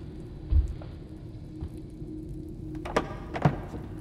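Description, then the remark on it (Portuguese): Old wooden floorboards creak and thump under slow footsteps as someone comes down the stairs in the room behind the listener. The irregular, muffled knocks are fairly quiet over a low background hum. “mas antes que consiga encontrar, ele ouve o ranger da madeira velha do assoalho. Alguém está descendo as escadas no cômodo atrás dele.”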